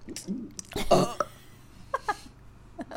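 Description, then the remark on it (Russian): A single guttural burp bursts out about a second in, followed by a few short throaty vocal sounds. “Я, рга- я рыгаю, это идет изнутри, и это секси.”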